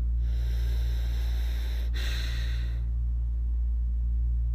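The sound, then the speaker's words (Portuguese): A man's slow breaths in an ASMR recording, an airy inhale drawn in for a few seconds and then easing off, intimate and soft over a steady low hum, with no talking. “Gente, a respiração desse homem é tão gostoso.”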